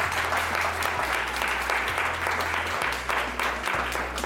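Sustained applause at Radio Cattivi, given for an 'applausometro' applause meter, a dense steady wash of clapping that holds loud for the full four seconds, with a low electrical hum running underneath.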